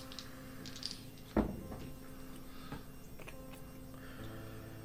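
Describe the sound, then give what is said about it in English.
A die rolled for a history check strikes a tabletop with a sharp clack, followed by a few faint ticks as it tumbles to rest, over a steady electrical hum with no one speaking. “was really interested in those dice rolls.”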